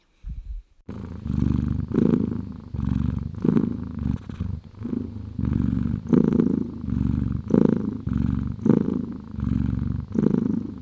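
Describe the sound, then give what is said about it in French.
A cat purring steadily, a low rumbling drone that swells and eases in a regular rhythm with each breath, continuous for about ten seconds with no talking. “Non, ce n'est pas votre grand-mère qui ronfle, c'est le ronronnement du chat.”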